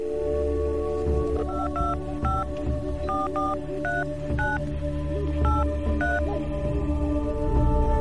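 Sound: telephone keypad dialing tones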